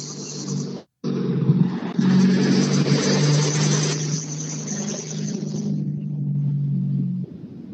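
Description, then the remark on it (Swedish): A rally car, Sundell's car driven by Emil Karlsson, roars and revs hard as it pulls away from the start, a loud, steady low growl with a brief cut at the start, then fading off after several seconds. “Ja, det är så härligt att höra rallybilar igen.”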